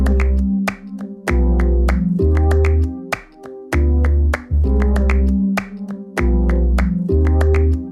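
A song's opening with crisp hand claps cracking out in a steady, syncopated rhythm over deep, sustained bass chords, loud, with no singing yet.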